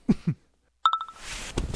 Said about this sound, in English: okay, I'm just getting up. It's really early in the morning and my phone just woke me.